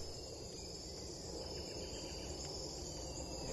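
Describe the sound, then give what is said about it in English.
A dense, steady insect chorus recorded in the Amazon rainforest just north of Manaus, with crickets and sustained high-pitched buzzing tones layered over a broad, constant hum, no voices present. “This is a recording uh, that I made in the Amazon uh, just north of Manaus. I was recording the biophony”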